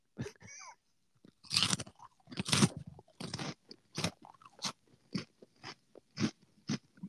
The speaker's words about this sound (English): We're now pausing for you to hear what some, a podcaster sounds like while eating Cheetos.